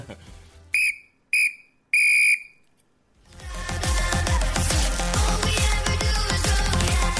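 Three sharp, shrill referee final-whistle blasts in quick succession, the last held a little longer, played as a cheap sound effect to close a SER radio sports programme and send off referee Undiano Mayenco, followed by loud music starting up.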